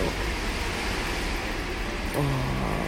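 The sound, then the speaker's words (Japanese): A constant, dense roar of typhoon wind and driving rain outside, muffled as heard from indoors on the 9th floor of a swaying building, during one of the strongest typhoons on record, with a brief low droning tone rising near the end. “人間は無力だ、3年前の観測史上最大級の台風日に”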